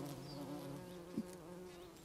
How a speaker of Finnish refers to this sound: Meillä on juuri nyt hyvin paljon ampiaisia ja meillä on myös ampiaisvaelluksia tässä